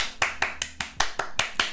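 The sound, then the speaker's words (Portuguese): A single person claps about eight times in applause for Serena Williams, in a quick, even rhythm, each clap sharp and bright, with no voices present. “Serena, a gente te aplaude, mulher, você arrasa.”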